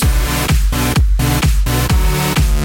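An upbeat pop summer hit song plays loudly with a steady, punchy beat hitting about twice per second, bright full-band music with a bouncy dance rhythm.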